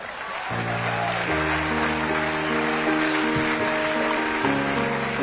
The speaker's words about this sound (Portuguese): Nossa primeira atração se chama Estrela em Ascensão. Palmas para o Damian.